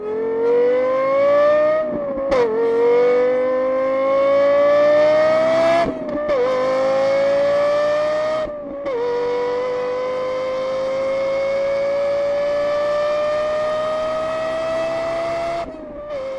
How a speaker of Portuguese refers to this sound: que é o Lexus LFA. Que é, é, feito em, em, em, parceria com a, com a Yama, com um som do outro mundo.